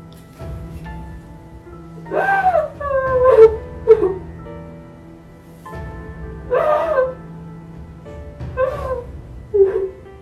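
A girl sobbing loudly in two bouts of wavering, high-pitched wails, whimpers and catching gasps, with a brief quieter pause between them and a low steady hum underneath.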